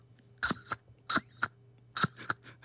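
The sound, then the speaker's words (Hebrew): A voice mimics an old-style camera shutter live in a Galei Tzahal radio studio: three sharp, breathy click-and-whir bursts spaced about a second apart, each with a double snap, over a faint steady hum. “היה למשל קול של אה, מצלמה.”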